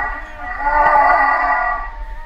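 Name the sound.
humpback whale vocalization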